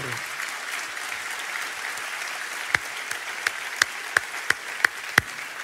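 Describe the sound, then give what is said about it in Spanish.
An audience applauds for the Lord with a steady wash of many hands clapping, then a few sharp, louder claps land in an even rhythm over the last three seconds. “Entonces, damos un aplauso al Señor.”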